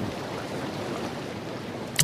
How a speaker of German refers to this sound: Ich bin schon ganz gespannt, äh, wenn ich dieses äh, Wasserrauschen höre. Klingt nach so einem richtig coolen Hotelpool, oder?